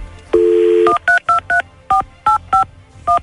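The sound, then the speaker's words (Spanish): A steady dial tone sounds briefly, then gives way to eight short, evenly spaced touch-tone beeps as a phone number is keyed in to call a man's girlfriend. It is clear, with no talking. “Vamos a marcarle a tu morra para ser el detective.”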